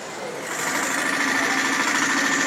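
A running gas-powered engine hums with a steady, high-pitched mechanical whir, swelling slightly after the first half-second and then holding at a constant, fairly loud level with no talking over it.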